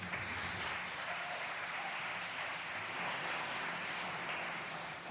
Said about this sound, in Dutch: Grote applaus.